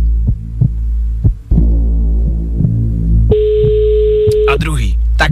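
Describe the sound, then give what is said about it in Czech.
A low, throbbing hum with soft rhythmic pulses, then a single steady telephone ringback tone of an outgoing phone call, lasting about a second before a voice briefly cuts in. “Schválně, jak dlouho necháváte vyzváně telefon, když někomu voláte? Já většinou tak tři pípnutí.”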